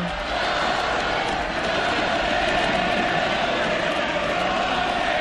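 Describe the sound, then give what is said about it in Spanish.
A huge stadium crowd of thousands of Sevilla fans chants "Vaca" in unison for Colombian player Carlos Vaca: a dense, steady roar of thousands of voices that stays loud and unbroken for the whole stretch, with no single voice standing out. “Miles de sevillanos cantan vaca, vaca, vaca.”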